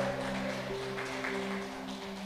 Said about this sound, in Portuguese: Se crê, meu irmão, aplaude Jesus. Diga glória a Deus.